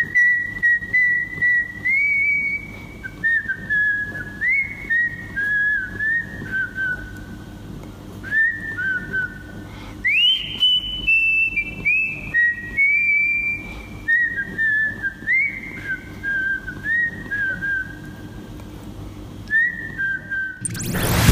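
A cheerful, bouncy melody whistled clearly and close up, phrases rising and falling in a steady repeating pattern over a faint low hum, with no talking.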